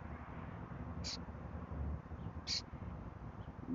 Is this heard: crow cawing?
yes